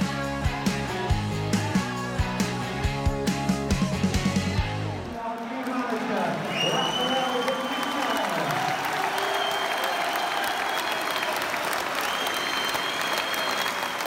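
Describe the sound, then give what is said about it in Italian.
A short burst of music gives way to Everton fans applauding Rafa Benitez on his debut at Goodison Park: steady, dense clapping and cheering with a few high whistles on top, sustained and loud to the end. “Quello che avete appena sentito è l'applauso dei tifosi dell'Everton a Rafa Benitez al suo debutto a Goodison Park.”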